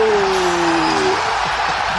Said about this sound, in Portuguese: a plateia gritando.